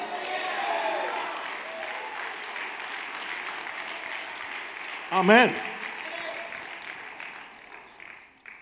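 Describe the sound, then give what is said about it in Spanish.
An audience at a church service applauds in a steady, dense wash of clapping that fills the whole stretch, with a single voice calling out briefly partway through before the applause fades at the end. “Dígale aleluya, aplauda, haga algo.”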